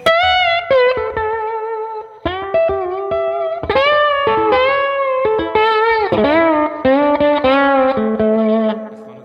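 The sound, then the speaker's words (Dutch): Slide guitar plays a loud, sustained phrase with notes gliding smoothly between pitches, rich in bright overtones, in several bursts separated by brief pauses, with no voices. “Oké, zo kun je dus ook slide spelen.”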